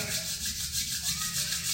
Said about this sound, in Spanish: Y vamos a frotar las manos